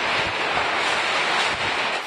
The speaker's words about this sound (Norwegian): Men hva er trygt? når det som kan være den sterkeste tyfonen noensinne, slår inn over land.